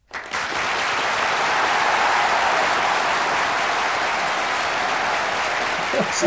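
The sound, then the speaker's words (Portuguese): Sustained applause added in editing as a celebratory sound effect, a dense, even wash of clapping that starts abruptly and holds at a steady loud level for about six seconds with no voices. “Na edição você bota aquelas palmas.”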